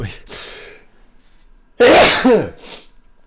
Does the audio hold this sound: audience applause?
no